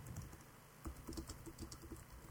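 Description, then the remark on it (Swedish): Quick, irregular clicking of keys on a computer keyboard while chatting, fairly quiet, with bursts of several keystrokes in a row and no voices. “Nej, jag chattar och lyssnar.”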